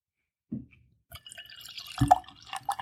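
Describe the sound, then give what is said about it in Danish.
An 11.5% OGH barley wine glugs and splashes as it is poured into a glass, starting with a brief splash, then a steady, bubbling pour that grows louder and fuller toward the end, with no talking. “Og mens jeg hælder op, jeg Anders, jeg snakker lige hen over det”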